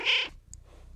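A single loud cat meow, short and tonal, followed by a near-quiet stretch of low background rumble.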